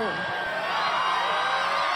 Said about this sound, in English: The crowd cheered as they always had.